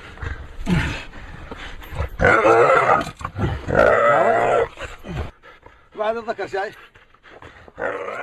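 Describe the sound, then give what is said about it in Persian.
A hyena snarls and growls in harsh, loud bursts as a group of people drag it out of its den, with excited human voices shouting around it and a brief quieter pause before the commotion resumes. “شما صدای ویدیویی را میشنوید که در آن عدهای کفتاری را از اش خارج می کنند تا او را بکشند و اندام تناسلیش را بفروشند.”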